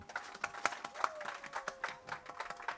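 A small group applauds for a song, with sharp, uneven claps rattling off in a quick irregular stream for a few seconds while a few voices murmur and whoop underneath.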